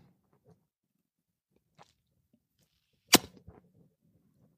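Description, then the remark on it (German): A wet lip smack cracks out sharply as someone licks their middle finger, followed by a couple of softer smacking clicks, with a faint click earlier against an otherwise quiet background. “Das kommt nach dem äh, Schmatz Schmatz, das kommt nach dem F.”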